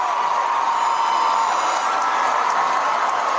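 A large concert crowd roars with excited cheering as a performer takes up a crystal flute, a dense, steady wash of shouts and whoops that stays loud and constant throughout, with scattered applause mixed in.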